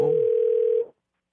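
A single steady electronic ringback tone, as the host of Park Myung-soo's Radio Show phones a listener, holds clearly for under a second and then cuts off into silence. No voices are present.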